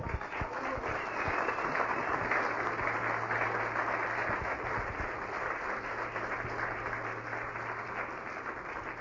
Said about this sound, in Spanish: Aplausos.